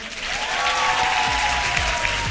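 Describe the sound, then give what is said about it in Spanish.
An audience claps steadily and fairly loudly, a dense wash of many hands applauding together without pause, with faint crowd voices mixed in, as the audience votes for a contestant by applause. “Y por último, risa, el ruido para risa.”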